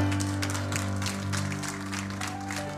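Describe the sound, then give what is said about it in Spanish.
A church audience applauds the Lord during a sermon, a dense wash of many hands clapping without pause, over a sustained low hum of an organ or keyboard chord. “¿Cuántos pueden darle un fuerte aplauso al Señor?”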